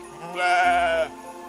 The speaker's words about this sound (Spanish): Poco después, el ángel más pequeño escuchó un balido en las cercanías.